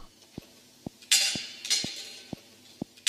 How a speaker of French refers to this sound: Là, ça commence par une toupie sur un plateau de métal.